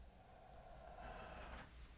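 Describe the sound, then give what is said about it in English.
A door is slowly pushed open by a pet, giving a faint, drawn-out creak and soft scrape over quiet background noise, with no voices. “She can open doors.”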